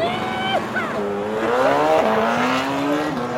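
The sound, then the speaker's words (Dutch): Racing motorcycles scream past at high revs during the TT MotoGP motorcycle race in Assen, their engine pitch climbing steadily and dropping sharply with each gear change, loud throughout. “Of motorliefhebber. Kent Assen vooral van één ding. Namelijk de Titi.”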